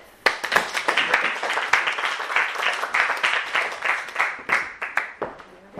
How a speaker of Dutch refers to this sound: Mag ik een applaus voor